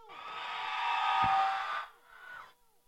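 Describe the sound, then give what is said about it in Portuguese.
A crowd shouts together to support contestant number one in a vote, a loud, sustained burst of overlapping voices lasting under two seconds, then a smaller, quieter wave of shouting follows briefly before fading out. “Quando eu botar número um, só grita quem tosse pra ela.”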